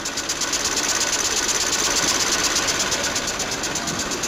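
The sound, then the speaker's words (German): A weaving machine's knife, cutting the threads, clatters in a fast, steady mechanical rhythm, loud, with bright metallic hiss running continuously throughout and no voices. The machine weaves fabric up to 44 cm wide. “Und dieses Messer, das diese Fäden abschneidet, ist auch, was hier dieses Geräusch erzeugt, nicht?”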